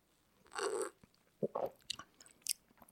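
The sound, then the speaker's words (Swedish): A crisp bite into a fika pastry, a sustained crunchy burst, followed by several shorter wet chewing sounds at an irregular rhythm. Fairly quiet, with no talking. “Jag, var ju, jag var ju ansvarig för fikabröd den här gången. Ja, det här var ja. jäkligt trevligt fikabröd.”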